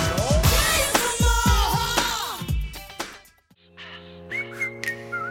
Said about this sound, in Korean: 휘파람 소리만 들으면 뭐다 아, 아시죠?